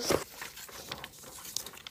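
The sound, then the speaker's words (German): A sheet of paper is taken and rustles and crinkles in quick, irregular bursts, with a sharper crackle near the start and another partway through, no voices present. “Entschuldigung, ich habe mir ein Blatt Papier genommen.”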